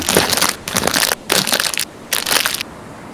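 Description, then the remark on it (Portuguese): Crunching of a small pack of biscuits pulled from a pocket, four loud crinkly bursts in quick succession, with no voices. “que do bolso tira o que parece ser um taquinho pequenininho de biscoitos.”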